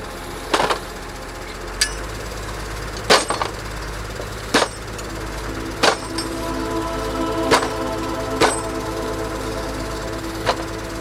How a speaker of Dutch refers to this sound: Paal onder de heimachine. Een paar klappen erop. En de paal voor het wolverend hek zit in de grond. En zo gaat dat een paar honderd keer vandaag. Hier in de buurt van Gifhorn.